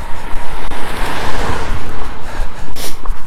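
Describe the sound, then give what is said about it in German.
A car rushes past, a broad swelling roar of tires and engine mixed with heavy wind buffeting the microphone. “Oh, Auto.”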